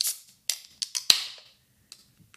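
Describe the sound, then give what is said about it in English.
A drink can is cracked open: a few small clicks, then a sharp pop followed by a brief fizzing hiss that fades out. No one speaks. “Okay, well, I guess I'll carry the weight of the the drink opening noise.”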